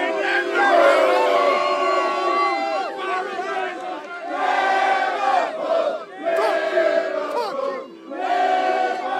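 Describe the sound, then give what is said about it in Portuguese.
A large crowd of Liverpool football fans boos and jeers loudly and continuously at the arriving Barcelona team bus on a Champions League match day, the din surging in waves over several seconds, dense with many voices at once. “o ônibus do Barcelona chegando e sendo muito vaiado pelos torcedores do Liverpool.”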